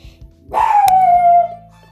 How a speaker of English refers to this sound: So, excuse me, my dog is barking.